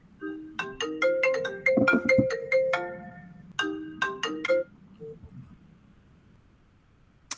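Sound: phone ringtone ringing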